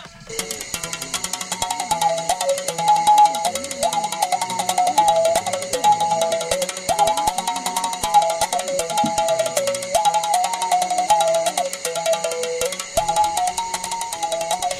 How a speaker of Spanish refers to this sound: El instrumento que acabamos de escuchar, el mbela, es conocido por los vaca como el imbidi.